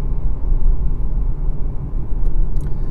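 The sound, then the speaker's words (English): A steady low rumble of a car outside, droning continuously for a few seconds at moderate loudness with no one speaking over it. “Oh, is the, is the Google car?”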